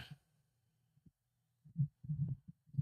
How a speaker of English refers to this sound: I'm sorry about fiddling with my microphone.